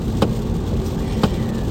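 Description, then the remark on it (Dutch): Heavy rain, which suddenly began, drums steadily on a car driving on the A2, a dense hiss over a low road rumble, with two brief sharper taps cutting through; no one speaks. “ondertussen rij ik denk ik in een bui eh, hier eh, op de A2. Want je hoort het misschien op de achtergrond wel.”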